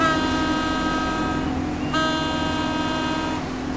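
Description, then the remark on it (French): Horns of a crowd of motor launches blare in loud, sustained harmonic tones as they come out to meet Éric Tabarly's boat after the finish line of his 27-day crossing, one launch carrying the French consul in Boston. They hold about two seconds, break briefly, then sound again before fading slightly. No one speaks. “Et là, je vois une foule de vedettes qui viennent à ma rencontre, en klaxonnant.”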